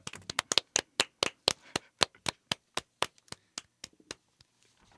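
Hand clapping: a quick run of sharp, bright claps at a brisk, slightly uneven pace, thinning out and fading toward the end. No talking.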